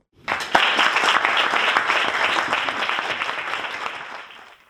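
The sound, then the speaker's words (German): Sustained applause from an audience at the Mein Gleichgewicht award ceremony, many hands clapping in a dense, crackling wash that starts abruptly, holds steady for several seconds, then gradually thins out toward the end. “Und glücklich sind sie selber auch gewesen, wo sie an der Preisverleihung eine grosse Tafel mit einem Scheck und ihren verdienten Applaus können in Empfang nehmen”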